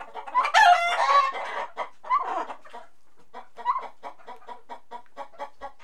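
A chicken clucks and squawks loudly, starting with an agitated burst of cackling, then settling into a steady series of short, evenly spaced clucks.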